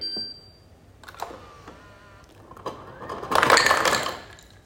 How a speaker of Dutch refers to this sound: Even ijs pakken, dus dat maakt even herrie.